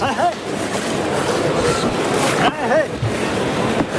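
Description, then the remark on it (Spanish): A jabonero fighting bull at a bullfight, the second bull of the afternoon, number 135, born 20 July 2017, breathes heavily by stand 8 of the bullring, a loud, rough rushing of air that barely lets up, with faint voices murmuring in the background. “Vamos a escuchar la respiración de este toro, que está aquí en el tendido, en el tendido 8.”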